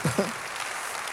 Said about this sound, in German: Und lass uns dem Jesus für den Effekt einen Applaus geben.